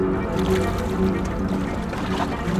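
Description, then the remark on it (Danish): A steady, low engine rumble of a ferry chugging very slowly across the water, continuous and fairly loud with a faint watery wash underneath. “Men færgen ligger over på den anden bred og skal først lige til at tøffe afsted, og det går sygt langsomt.”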